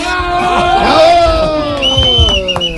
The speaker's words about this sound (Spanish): Recibamos pues con un fuerte aplauso